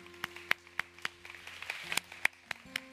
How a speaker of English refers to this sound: Can we clap for these who gave their heart to Jesus this morning?